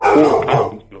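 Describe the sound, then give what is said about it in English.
A male dog barks sharply once or twice, loud and brief, overlapping a person who keeps talking through it. “Sorry about my dog deciding to state his opinion.”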